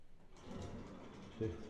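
A person swings a door shut, with a brief rustle of movement before a soft, low thud as it closes; the sound is fairly quiet.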